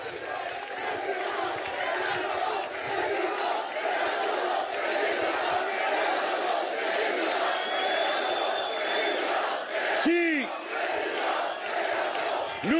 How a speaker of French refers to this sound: Ah, écoutez, faut que ça vous passe. Arrêtez de crier mon nom. Je sais qui je suis, a pas besoin de me le dire.